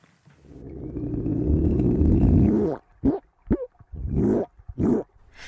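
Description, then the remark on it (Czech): A Hawaiian monk seal makes a long, low, rumbling underwater croak that swells and fades, followed by four short guttural grunts in an uneven sequence, heard alone, recorded in Hawaii by the underwater microphone of American scientist Kirby Pernell. “Kuňkání a sténání – americká vědkyně popsala podvodní komunikaci havajských tule”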